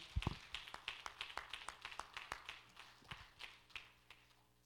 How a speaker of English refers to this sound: Clap your hands and love him tonight. He's worthy.